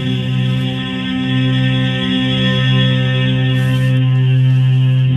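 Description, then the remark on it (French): Sustained choral voices sing a hymn in long, steady harmonic notes that blend into a wash of reverberation, as heard from the entrance of Notre-Dame cathedral, with a slightly muffled quality. “On peut se rendre compte, dans cet article avec un hymne de Perrotin à quel point c'est important quand on est à l'entrée de Notre-Dame.”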